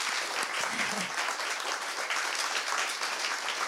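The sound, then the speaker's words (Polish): Steady audience applause, a dense wash of many hands clapping at an even loudness throughout, with a brief murmur of voices early on. “Wielkie brawa, słuchajcie, dla nich.”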